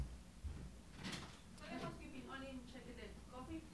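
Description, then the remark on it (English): A door clunks and swings open with a brief rattle as someone comes in, followed by faint voices talking. “Someone's trying to come in and get coffee or something.”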